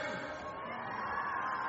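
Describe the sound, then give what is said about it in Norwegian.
An audience cheers for top athletes coming down from the top, shouting together in a loud, sustained roar of many voices, steady throughout with no clear individual words. “Det er lov til å gå amok eh, bejuble her på disse verdenstoppene som etter hvert kommer nedover her fra topp.”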